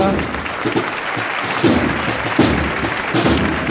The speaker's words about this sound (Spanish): Con el paso adentrándose en la calle Sierpes con la ovación del público de la campana, que valora y que premia el buen hacer de músicos y costaleros que conforman esta sinfonía que se convierte en un auténtico espectáculo para los sentidos